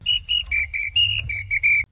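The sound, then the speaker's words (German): A shrill whistle on a black-red-gold 4-in-1 World Cup fan instrument (drum, rattle, ratchet and whistle) is blown in a quick series of short blasts, about eight toots in a lively rhythm, loud, with a low rumbling background underneath. “Es besteht aus einer Trommel, einer Rassel, einer Ratsche und einer Pfeife.”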